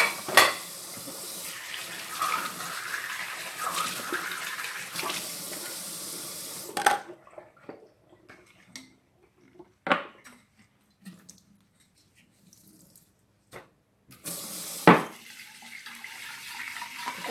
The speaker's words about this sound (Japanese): 洗い物とかしてるとだんだんすごい集中が増してきて喋りながら洗うのは結構難しいなっていうことに気づきました。